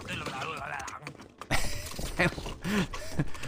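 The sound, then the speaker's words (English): A video game character lets out a burst of wordless grunts and strained vocal noises as a horse-drawn carriage clatters into him, hooves and rumbling filling the background. “that sound was my guy reacting to being run into by a carriage.”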